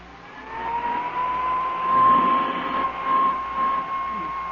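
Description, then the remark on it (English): A small hand vacuum runs steadily for several seconds as it is passed over a coat, its motor whining at a constant high pitch over a rough, breathy rush as it works across the fabric. “what's the point of going over that coat with a hand vacuum?”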